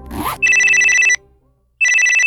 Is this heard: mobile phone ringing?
yes